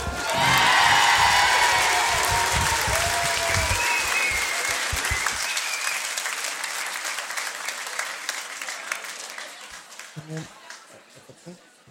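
A large concert crowd in the hall Le Coteau applauds loudly, with whistles and excited cheers rising over the dense clapping at first, then the ovation gradually thins and fades over several seconds.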